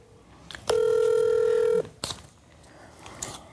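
A loud, steady telephone tone sounds for about a second as a call is placed to a new phone number, framed by a few clicks and handling noises, with faint background hiss and no talking.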